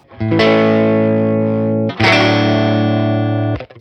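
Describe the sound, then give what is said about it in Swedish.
Electric guitar through a tweed-style amp emulation: two strummed, sustained chords, each ringing for nearly two seconds with a warm, slightly overdriven bite, the second cut short with a quick choke. “Och det här är ju då en, en, en tweed baseman”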